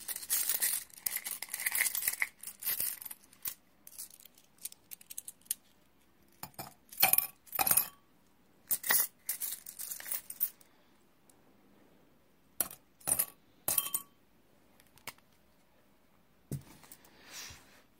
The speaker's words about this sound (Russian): Итак, значит, кладем золотую вещь в воду. Вот так. Потом сыпем туда монеты.